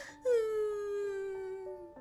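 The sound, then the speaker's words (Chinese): A single long, mournful wail of a big truck crying in a children's story, likely a voice imitation, starting abruptly and slowly sliding downward in pitch for nearly two seconds, loud and alone with no talking. “这是什么声音？大卡车叔叔在哭泣呢。”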